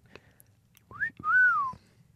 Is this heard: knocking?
no